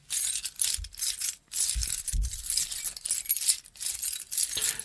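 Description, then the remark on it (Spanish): Metallic jingling and clinking of several keychains rubbed together, a continuous bright rattling with brief pauses and a few low thumps of handling, no voices. “Y si ponen atención se van a dar cuenta de que esto se obtiene frotando varios llaveros juntos.”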